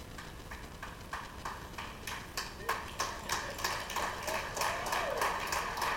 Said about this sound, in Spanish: Ese fue el aplauso más retrasado en la historia de Palabras de Vida.